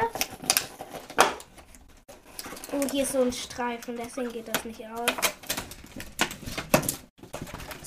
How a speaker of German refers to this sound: Und jetzt mache ich das mal auf. So, hab's gleich auf. Knistern schön jetzt.